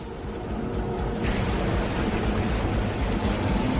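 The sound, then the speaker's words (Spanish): A steady, loud roar of churning water and rushing air from a wave tank generating a giant wave, with a sudden surge in hiss about a second in as the wave machinery builds up. No voices. “Con apretar un botón dentro del tanque pasamos de un día encantador en el mar a Yamata a los guardacostas.”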